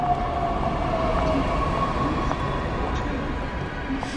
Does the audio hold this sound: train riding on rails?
yes